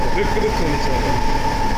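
Steady, loud rumble inside a car of the Sapporo Municipal Subway Namboku Line in Hokkaido, Japan, with continuous low mechanical roar and a sustained whining hum running unbroken throughout.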